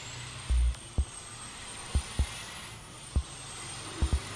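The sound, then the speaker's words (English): Diesel trucks passing in street traffic in Little Village, a low background rumble broken by a series of short, heavy thuds at irregular intervals, with a faint steady high whine throughout and no voices. “You can often hear the horns of angry drivers and noises from the trucks passing by.”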